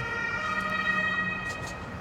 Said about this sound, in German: Nee, Krankenwagen in diesem Fall. Rettungsdienst der Bundeswehr. Hier ist was los.